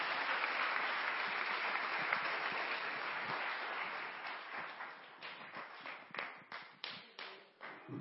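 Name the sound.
audience clapping hands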